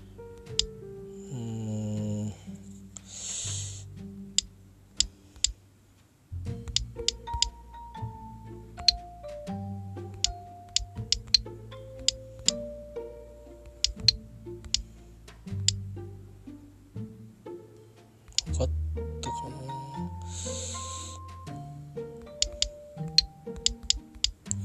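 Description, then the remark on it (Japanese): Irregular clicks of typing on a computer keyboard while someone searches for a singer's name, crisp, in bursts over a steady melodic music backing, with no one talking. “カチカチ落としてますけど検索してますけどねえー、っとねこれ今調べてる音が入ってるでしょ”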